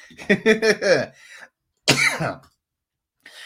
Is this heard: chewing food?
no